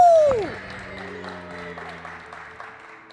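An audience applauds a guest musician being introduced, in a steady, moderate patter of clapping that carries on throughout, opened by a single loud whoop that slides down in pitch, with a low sustained hum underneath.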